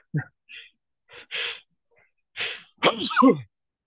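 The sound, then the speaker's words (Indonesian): A person sneezes: a few quick, breathy inhales build up, then a loud, forceful burst with a voiced, throaty tail. “Alhamdulillah. Ya, Yahdikumullah wa yuslihu ba'dakum.”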